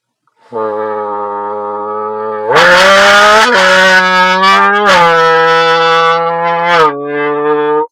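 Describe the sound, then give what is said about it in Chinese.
A voice buzzing through a soft-walled Japanese beer can, the can resonating, imitates a supercar or race car engine roar: a steady droning hum that suddenly jumps louder and harsher, revs up and down in pitch, then settles back lower. No talking. “然后今天我发现了一种这个模仿特别适合模仿汽车声浪的这么个啤酒罐啊。”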